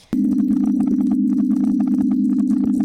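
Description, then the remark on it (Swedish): Corn plants growing, recorded by an American artist, heard as a steady low droning hum with scattered faint creaks, ticks and pops crackling throughout; continuous, with no talking. “Det här var majs som växer.”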